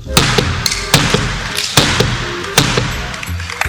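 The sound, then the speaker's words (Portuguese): A gavel strikes a table at the B3 stock exchange to close an auction, in an uneven series of loud, sharp knocks with a few softer taps between, all over a steady background murmur. “encerrou o arremate com uma série de marteladas na mesa da B3.”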